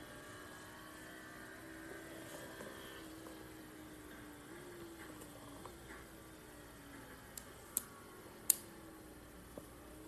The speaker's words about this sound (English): Sure sounds pretty racy. And as you can hear, the cars roaring.